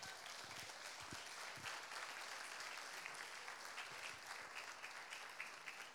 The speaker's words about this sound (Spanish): Le damos una ofrenda de palmas al Rey por eso.